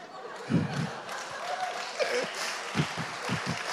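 Audience applause and scattered laughter from a crowd, a steady wash of clapping with a few louder thumps and bursts rising out of it.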